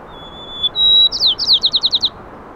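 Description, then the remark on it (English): Two male songbirds counter-singing: a faint thin whistle, then a louder sustained whistle breaking into a quick run of about eight bright, descending chirps, clear with no talking. “You can hear this communication happening, the counter singing between two males.”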